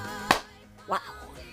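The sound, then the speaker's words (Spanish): Two sharp hand claps, spaced about half a second apart, the first crisp and loud, the second a bit softer, over a faint steady background hum. “Que aplaudo poquito, pero tengo Mucha fuerza, mira.”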